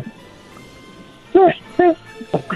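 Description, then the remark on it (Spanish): A child's voice imitates a puppy barking: three short, high-pitched yips, spaced about half a second apart, over a faint murmur of background noise. “pero te voy a dar los juguetes con una condición, que ahorita hagas el ruido de un perrito.”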